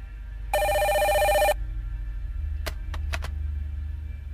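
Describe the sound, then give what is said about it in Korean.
A telephone bell rings in one loud, bright, buzzing burst lasting about a second, then stops. A few sharp clicks follow over a steady low rumble. “바로 그때 전화벨 소리가 울려왔다.”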